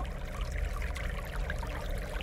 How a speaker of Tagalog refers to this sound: Nangilabot ako nang maaninag ko ang isang lumang tulay na may arko sa ilalim. At may dumadaloy na parang batis sa pinakailalim nito.